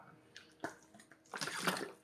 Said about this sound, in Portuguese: Vou beber água, já estou cansado.